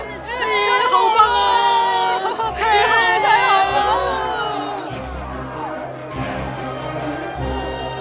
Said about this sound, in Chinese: 站在旁边观战的人们不由自主地欢呼起来。